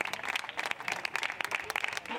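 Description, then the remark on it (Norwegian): A crowd standing outside in Catalonia applauds steadily as a Catalan minister leaves his job for the last time, dense overlapping claps forming a continuous, moderately loud patter with no voices standing out. “Her må han gå ut fra jobben sin for siste gang, mens folk står utenfor og klapper.”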